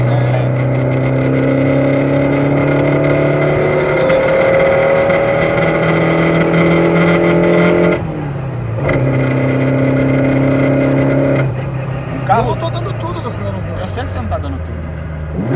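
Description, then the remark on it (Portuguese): A turbocharged car engine hums loudly and steadily, its pitch climbing slightly as it revs, then drops off briefly before settling back into a lower drone, with faint muffled voices underneath. “O carro turbo é legal porque a resposta ela vem, mas não é imediata.”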